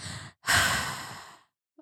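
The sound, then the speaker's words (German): A voice imitates heavy breathing right against the ear: a short breath, a brief pause, then a long, loud, breathy exhale, very close and intimate, with no talking. “Sagen wir mal so, dein Azubi stellt sich hinter deinen Rücken, aber so nah, dass gefühlt kein Abstand mehr dazwischen ist und du hörst ihn so atmen in deinem Ohr.”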